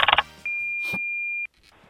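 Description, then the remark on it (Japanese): An answering machine beep before recorded messages about people's worries are played: a quick burst of electronic chirps, then one long, steady, high-pitched tone lasting about a second, loud and clear, followed by near silence. “この教室にある留守番電話に吹き込んでもらったみんなの悩みを部長が解決していきますそれでは留守番電話お願いします”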